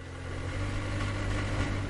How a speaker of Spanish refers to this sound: Conduce despacio mientras busca un sitio para aparcar. Para el coche cerca de una furgoneta que está saliendo de su plaza.